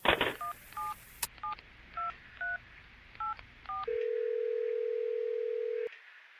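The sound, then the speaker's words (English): A series of about seven short, evenly spaced touch-tone keypad beeps plays over a low line hiss, followed by a steady two-second tone that cuts off abruptly. No one speaks. “Is that your phone? I think the phone, my phone's tapped. It's messing up.”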